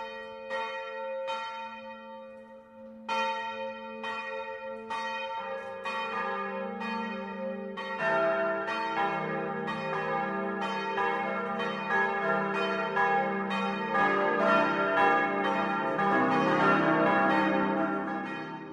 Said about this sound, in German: Es ist 12 Uhr. Das Mittagsläuten kommt heute aus Obertraubling in der Oberpfalz.